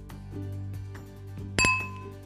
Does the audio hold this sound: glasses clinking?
yes